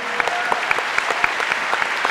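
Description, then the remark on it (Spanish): A crowd at a church gathering applauds steadily for Jesus, dense overlapping claps forming a continuous bright wash with occasional sharper individual claps standing out, fairly loud and sustained throughout. “Dale fuerte ese aplauso Jesús.”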